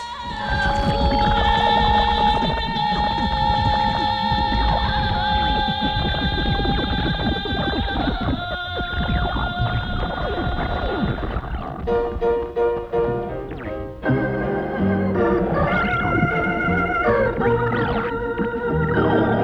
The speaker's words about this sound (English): Here's the conclusion of Ruth Anderson's seldom heard composition from 1970.